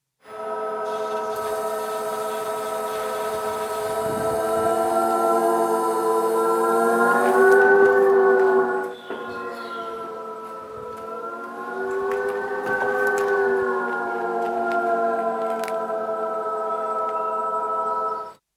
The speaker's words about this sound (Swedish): Så här låter en i3-bil som först backar några meter och sen kör framåt igen.